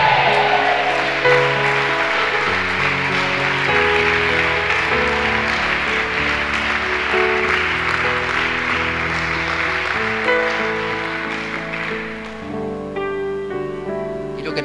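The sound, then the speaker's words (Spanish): An audience at a church service claps steadily and loudly as applause to the Lord over sustained organ-like chords, the dense applause carrying on for several seconds before thinning out near the end while the music continues. “Dame un amén bien fuerte y un aplauso al Señor.”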